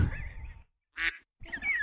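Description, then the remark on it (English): A voice imitates a duck with three nasal quacks in quick succession, fairly loud, separated by brief silences, with no other talk. “Like I just randomly like quack.”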